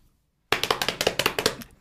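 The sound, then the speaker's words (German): Hands slap rapidly on thighs in a quick drumroll, about a dozen fairly loud pats in a steady run after a moment of silence, then fading out. “Ich versuche wieder auf die Oberschenkel zu klopfen.”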